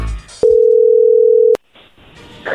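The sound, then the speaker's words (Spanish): A telephone tone from an outgoing call: a single loud, steady mid-pitched beep lasting about a second, starting and stopping abruptly, followed by low background noise. “A ver, ahí se está marcando, le va a marcar el lobo, no hagan ruido.”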